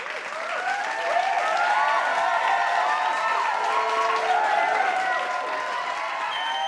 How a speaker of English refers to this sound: Give yourselves a round of applause, please.